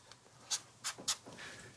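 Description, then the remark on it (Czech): Quiet scratching of a pen on paper, a few short quick strokes with brief pauses between them, and no voices. “No, ani jeden dokáže mluvit a zároveň psát.”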